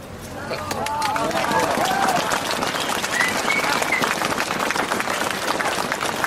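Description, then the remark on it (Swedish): A crowd breaks into steady, sustained applause, dense clapping that holds at a fairly even loudness throughout, with faint voices and cheers mixed into the wash of hands. “en varm applåd.”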